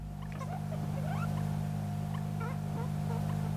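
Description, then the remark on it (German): A series of small, high-pitched squeaks and chirps from a small animal at Hinterkaifeck, either a bird woken by a light or a hare, scattered irregularly over a steady low hum, fairly faint, with no talking. “Entweder habe ich mit meinem Licht und Vogel aufgeweckt oder es hat irgendein Häschen gefiebt.”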